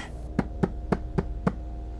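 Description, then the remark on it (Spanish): Five evenly spaced knocks on a door in quick succession, firm, with a faint steady hum underneath and no voices. “De pronto tocaron a la puerta.”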